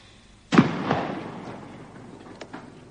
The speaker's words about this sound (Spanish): De nuevo el silencio. Como unas explosiones o, o como...